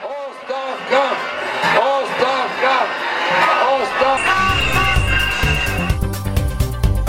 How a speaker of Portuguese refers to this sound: É, a gente ouviu ao fundo também ali ainda, né, manifestações, alguns dos gritos, né, palavras de ordem dos manifestantes na capital Sófia